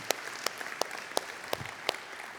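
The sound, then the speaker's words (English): A church audience applauding the parents of young children during a service, faint, with sharp claps landing in a steady, even rhythm over a soft wash of scattered clapping; no one speaks. “And uh, let's hear it for the parents who are enduring through this service uh, with their little ones.”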